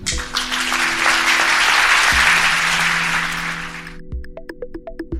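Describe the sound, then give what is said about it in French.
An audience applauds the speakers of a round-table discussion, clapping steadily for about four seconds, a dense crackling wash of many hands, before it cuts off and a short bright musical jingle of plucked notes begins. “Et donc, euh, j'en suis très heureuse et je vous demande d'applaudir nos orateurs.”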